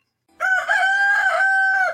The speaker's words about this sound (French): Cocorico